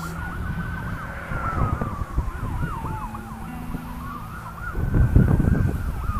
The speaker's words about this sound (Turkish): Sirenler gidiyor bir yerlere bu arada. Duyuyor musunuz bilmiyorum seslerini. Yazık itfaiye.